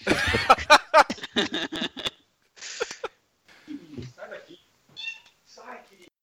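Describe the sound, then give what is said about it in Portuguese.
A cat meows several times, loud and insistent at first, followed by softer, more scattered meows and small noises with short pauses between them. “Pô, é, só um parênteses, vocês estão ouvindo o gato?”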